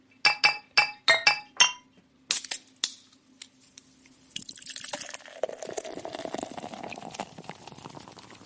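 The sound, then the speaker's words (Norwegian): Five bright glass clinks ring out in quick succession, then a bottle is handled and beer pours steadily into a glass for a beer tasting, with a rising, fizzing gurgle and no talking. “Vi eh, skal i hvert fall starte, eh, som seg hør og bør, med litt alkohol. Vi kjører i gang en øltest.”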